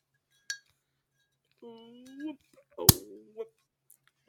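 A cork pops sharply out of a beer bottle in one loud burst after being twisted, preceded by a faint click and surrounded by brief murmured vocal sounds.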